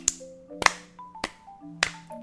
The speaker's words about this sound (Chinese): 我们自己一定要拍手一下。 哎，我们拍有默契一点。 OK，一二三。